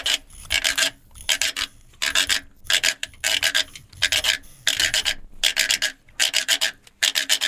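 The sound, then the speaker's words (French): A handmade wooden instrument imitating a frog rasps out a steady run of ratchety croaks, each a quick cluster of scraped clicks repeating about twice a second, clear with no voices. “Alors moi, c'est euh, la grenouille, le son de la grenouille.”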